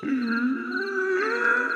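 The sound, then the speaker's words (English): A person voices a sustained, strained creature screech lasting under two seconds, loud, with a wavering pitch that dips and rises again, imitating the cry of a waxy gator-like creature. “The, uh, the waxy fucking gator thing fucking Screeches.”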